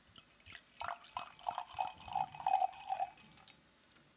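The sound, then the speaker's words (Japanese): White Muscat wine by producer Christian Binner, from a bottle with a glass stopper instead of a cork, glugs into a glass in a quick run of rhythmic gurgles that rise slightly in pitch as it fills, clear with no talking. “やっぱワインを注ぐ音っていうのはね。ねこれは白ワインですね。”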